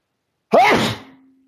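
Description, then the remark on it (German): A single loud sneeze bursts out close to the microphone, an abrupt explosive onset trailing off over about a second, with no talking around it. “Ich habe es sehr gut gerade ins Mikrofon äh, reingenossen.”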